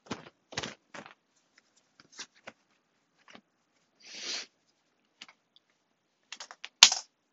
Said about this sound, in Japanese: えー、洗い物といっても、洗濯物、洗濯物を干す作業中の収録です。えー、普段の食器洗いとは違いますが、だから洗濯物を干していきます。